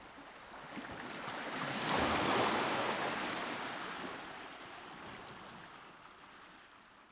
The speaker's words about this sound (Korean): 가늠할 수도 없는 먼 바다에서 태어난 파도가 흔들림 없이 다가오는 것이 보인다. 보드를 해변을 향해 돌린다. 타자, 저 파도.